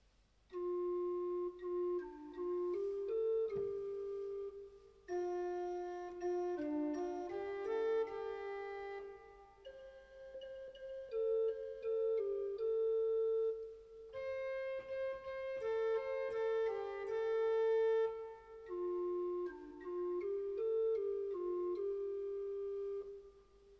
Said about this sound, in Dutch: kantorij en gemeente zingen hetzelfde na elkaar. Kantorij, Heer, ontferm u over ons. Gemeente, Heer, ontferm u over ons.